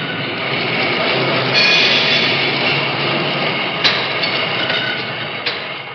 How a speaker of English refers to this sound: That's an overhead conveyor system, nearly eight miles of conveyors in one factory, winding through the building. Car bodies automatically weave and crisscross in a bewildering maze of conveyors without apparent human direction.